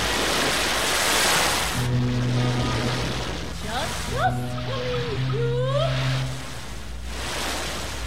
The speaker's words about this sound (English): Here, give me some ocean.